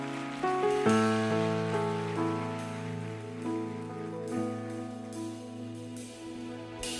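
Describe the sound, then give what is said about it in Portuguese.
Steady audience applause for Jesus during a worship song, a dense crackling wash of many hands clapping, continues under sustained keyboard chords that shift every second or so, with no voices. “Você pode dar um forte aplauso a Jesus.”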